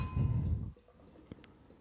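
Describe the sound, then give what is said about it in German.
Wheat beer (Hefeweizen) glugs and splashes into a wheat beer glass for under a second, fairly loud, then stops, leaving faint fizzing and a couple of small drips. “Jetzt muss ich nur, darf ich nur nicht so schnell eingießen.”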